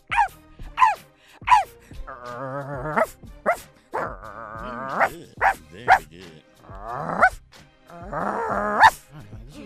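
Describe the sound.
A person's voice imitates a dog, giving a run of short, sharp barks, then longer, drawn-out whining yowls with more barks between them. The sounds are fairly loud, with no talking.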